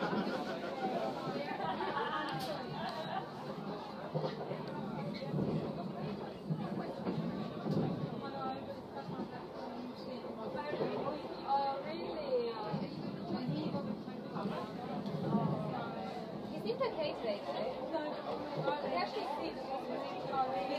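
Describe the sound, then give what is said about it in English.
Lively hen party chatter on a train from Gatwick to Farringdon in London, a dense, continuous babble of many overlapping voices with occasional louder bursts, steady for the whole stretch. “What you're listening to behind my back is a sound of a hen party.”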